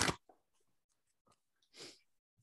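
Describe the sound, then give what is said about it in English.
Shuffling of a deck of tarot cards: a sharp papery burst, a few soft scattered taps and rustles, then a longer swishing riffle, quiet and with no one talking. “Let's pull some cards. Yeah. I love so, it. shuffle up.”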